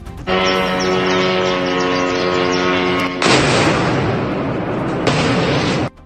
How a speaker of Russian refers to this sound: Удар зафиксировали камеры наблюдения. На опубликованном видео видно, что в какой-то момент беспилотник врезается в резервуар и происходит взрыв.